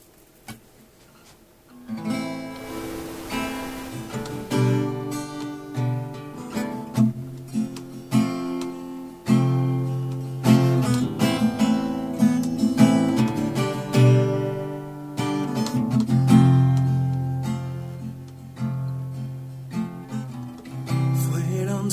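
A song plays after a brief quiet opening. The full, steady arrangement comes in loud and close, with rhythmic accompaniment and a melodic lead that could be a singing voice.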